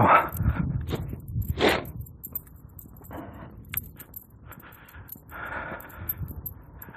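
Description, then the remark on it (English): A puppy gives a few sharp, scattered yaps as it approaches outdoors on icy ground, amid light metallic jingling like collar tags, with quieter rustling and shuffling between the barks. “Hey, here comes a puppy.”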